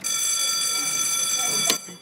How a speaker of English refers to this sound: So it starts out with the shooting bell being being rung. Bing.